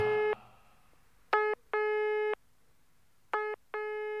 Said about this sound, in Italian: a quanto pare proprio dopo vent'anni si è ancora occupato questo benedetto telefono.